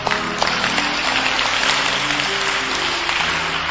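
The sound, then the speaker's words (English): An audience claps steadily for several seconds, a dense, fairly loud wash of overlapping hand claps with no pause, while faint sustained low tones hum underneath. “Are you clapping for me or clapping for him?”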